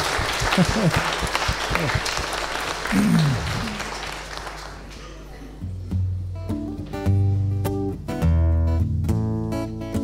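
An audience applauds its eldest member, who recently had a birthday, with dense, steady clapping for about five seconds; then the clapping fades as sustained, melodic musical chords begin and carry through to the end.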